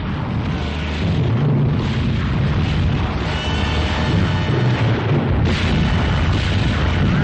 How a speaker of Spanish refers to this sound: Una tropa a caballo llega al campo de batalla donde es contraatacada por un ejército armado con fusiles y cañones.